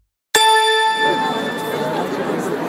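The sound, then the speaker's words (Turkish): A single struck metal bowl rings out loud, its bright, shimmering tone sustaining and slowly fading over a few seconds, with faint background noise beneath. It is struck to close the program Lokal Terapi. “Kapanışı da DAS'la yapıyoruz.”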